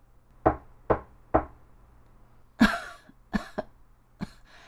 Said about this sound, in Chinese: 这时，那只饿狼直奔小红帽外婆的家，轻轻敲响了小屋的门。